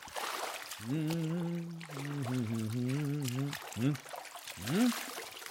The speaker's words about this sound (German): Langsam lässt er sich in das warme Wasser gleiten.